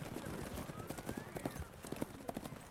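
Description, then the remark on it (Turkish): Horse hooves clip-clop in a steady, uneven rhythm on a hard surface as riders take their horses through a town toward the town stable, with a faint rising whistle-like tone and low background murmur underneath. “Hanın girişine gelmeden önce atlarımızı beslemek ve ısıtmak için kasaba ağırına doğru ilerledik.”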